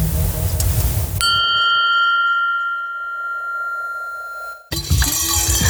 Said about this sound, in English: you hear that though? That's from since I got to work. This is the ice from I filled it up with. Damn. Work. I just kept put water in it all day.